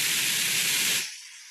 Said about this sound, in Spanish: Yo quiero ruido rosa. Dame más ruido rosa. Ay, le gusta el ruido rosa. Dame más ruido.